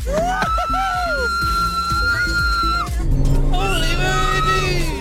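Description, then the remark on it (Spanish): Lewis Hamilton accelerates a car on a straight: the engine roars loudly and continuously, its whining tones shifting as it speeds up, with music from the car's radio and raised voices mixed in throughout. “Y Hamilton acelera y ocurre esto. Esto es solo la recta, ¿eh?”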